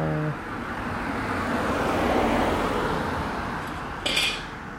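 A car passes by, its broad road rumble swelling to a peak midway and then slowly fading, with a brief sharp clink near the end and no voices.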